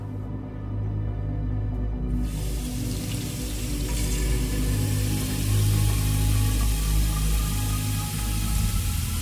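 Water runs steadily from a tap into an emptied wine bottle in a kitchen at night, a continuous rushing pour whose tone climbs gradually as the bottle fills, with no voices.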